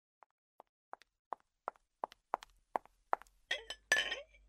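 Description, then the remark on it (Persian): Footsteps of a person bringing a glass of cool water approach at a steady pace, starting faint and growing steadily louder, ending with a few brighter clinks and clatters of the glass being handled. “با یک لیوان آب نزدیک می آید”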